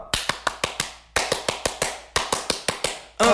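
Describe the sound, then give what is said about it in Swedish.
Groups of sharp hand claps in a steady rhythm, several quick claps per burst with short pauses between, a small French-style applause given by a group clapping in unison to welcome someone back; a voice begins at the very end. “Ja, jag tycker till och med att vi i kosfamiljen kan ge eh, dig en liten fransk applåd.”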